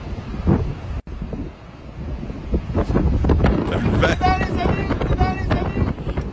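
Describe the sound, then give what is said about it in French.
Loud, gusty winds of storm Fiona roar and buffet steadily, with a short dropout near the first second, as someone pours red wine that is blown into a spray before reaching the glass; voices talk intermittently over the rushing noise. “En fait, à chaque fois qu'il verse, ça a même pas le temps de se rendre dans la coupe. C'est un nuage de vin.”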